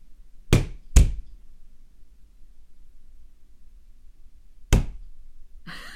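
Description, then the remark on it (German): Three sharp knocks of a hand striking a metal roof from inside, near the microphone held against the spot, two in quick succession and then a third after a pause, fairly loud, each with a brief ringing tail, over a quiet background. “ich nehme jetzt das Mikrofon mal in die Hand, halte das an die Stelle an, der, an dem, in dem Dach und haue mal dagegen”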